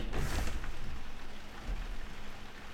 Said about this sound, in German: Und hier sind wir. Im Regen.